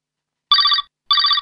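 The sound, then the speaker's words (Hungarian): A telephone rings twice in quick succession, each burst a bright, trilling electronic ring of about a third of a second, clear with silence between and no voices. “Tessék, halló, itt ….”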